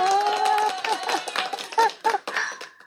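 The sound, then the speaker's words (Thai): A short burst of hand clapping given as encouragement, a few sharp irregular claps mixed with voices and light laughter, fading out toward the end. “ขอปรบมือเป็นกำลังใจก่อนขอให้เป็นอมตะ”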